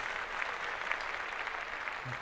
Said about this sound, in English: They got it done during the pandemic. So round of applause to them.